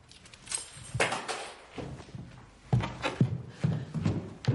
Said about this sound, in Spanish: Olivia cierra la puerta y tira la llave.